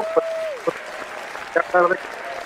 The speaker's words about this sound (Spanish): ya te pusieron tus aplausos